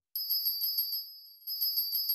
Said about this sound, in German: Plötzlich ertönte eine Glocke.